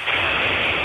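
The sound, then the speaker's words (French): A steady, rushing hiss like running water fills a telephone line, loud and unbroken for under a second, with no one speaking. “Il y a du bruit dans votre téléphone, c'est curieux quand même.”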